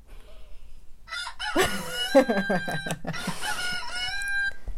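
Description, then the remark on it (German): A rooster crows loudly as a timer signal at the end of a countdown, a long, strained cock-a-doodle-doo with wavering harmonic tones that starts abruptly and rings out until the end, with some faint clucking beneath. “Du hast noch drei Sekunden. Zwei, eins, Kikeriki.”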